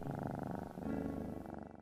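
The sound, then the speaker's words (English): A cat purrs steadily while being petted, a low continuous rumble with a soft rhythmic pulse, heard alone for a couple of seconds. “Hang on, I need to pet this kitty.”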